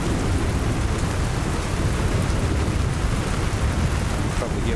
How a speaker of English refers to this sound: I wonder if flooding is a possibility if this torrential rain continues for any length of time so we're just going to see what happens